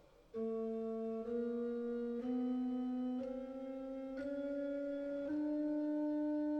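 Pipe organ, with the left hand holding sustained notes that climb in half-step intervals, about six connected tones roughly a second each, steady and fairly loud with no voices.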